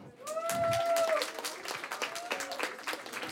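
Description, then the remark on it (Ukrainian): An audience applauds with dense, steady clapping throughout, loud at first and then easing slightly, with a brief high whoop or cheer rising over the claps near the start. “Та люди аплодували і не знали, з якої сторони він воює.”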